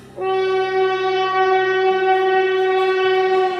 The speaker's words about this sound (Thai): วู้รถไฟมาแล้วพี่ ดูเร็วดูเร็วอาสัง